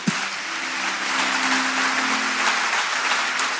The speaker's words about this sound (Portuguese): Você pode dar um aplauso bem forte ao nosso Deus?